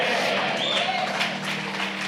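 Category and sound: crowd, audience applause in church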